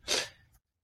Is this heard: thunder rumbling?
no